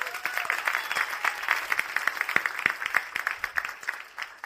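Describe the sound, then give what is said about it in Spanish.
A crowd applauding, with many hands clapping in a dense, steady patter that holds for several seconds before thinning out toward the end. “Gracias chicos, porque no le damos un aplauso a los chicos que ven”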